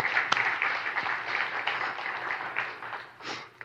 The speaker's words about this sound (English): You can definitely clap for that, for sure.